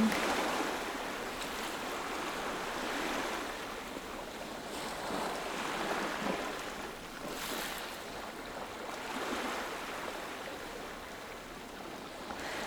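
Ocean waves wash in steadily as a broad, continuous roar, with soft surges swelling every few seconds and a light breeze hissing over the water; no voices.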